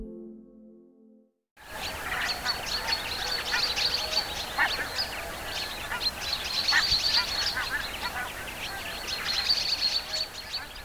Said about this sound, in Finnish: Syys-lokakuun vaihde on lintulaumien aikaa. Vaikka kurjista enemmistö on jo lähtenyt, niin on meille tullut tänne lisääkin lintuparvia. Satoja tuhansia hanhia vaikkapa tuolta koillisesta Venäjän tunnalta.